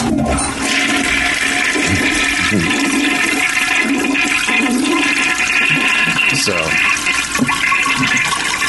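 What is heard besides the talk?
toilet flushing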